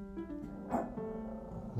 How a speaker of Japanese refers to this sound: 犬がなんかうめいてますけど